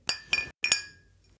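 Two glass beer bottles clink together four times in quick succession in a toast, bright, each knock ringing briefly with the final one fading out. No voices.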